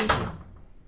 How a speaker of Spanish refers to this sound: A ver, pero, pero espérame, déjame, déjame cerrarle la puerta